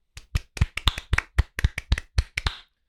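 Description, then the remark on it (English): A short round of applause from what sounds like a single pair of hands: about a dozen crisp, sharp claps in a steady, fairly quick rhythm, with no voices. “A round of applause for all of these fine people, please.”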